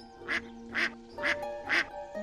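A duck quacks four times in an even, steady rhythm, each call short, nasal and fairly loud, with a soft, continuous background hum underneath.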